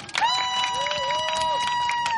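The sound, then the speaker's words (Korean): A large outdoor audience at the Jecheon International Music & Film Festival in Jecheon, gathered in front of a mobile broadcast studio on a hot weekend, claps loudly on request in a dense, continuous patter for about two seconds, with scattered voices and a steady ringing tone faintly underneath. “한번 박수 한번 크게 쳐볼까요?”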